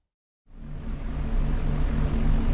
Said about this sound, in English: and soon after, the bombers started their engines and were on their way to the target.